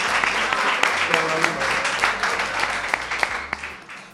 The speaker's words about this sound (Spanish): un aplauso, un aplauso